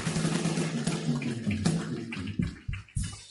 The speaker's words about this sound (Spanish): Pone bien fuerte ahí las palmas.